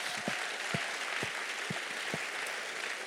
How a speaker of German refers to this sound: Es gibt so viele Arbeitszweige, über 50 Arbeitszweige, aber die mit den Kindern arbeiten, gebt doch mal allen unseren ehrenamtlichen Mitarbeitern einen riesen Applaus.